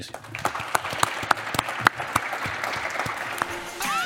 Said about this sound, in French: Applaudissements pour vous.